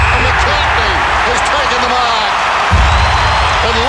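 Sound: stadium crowd roaring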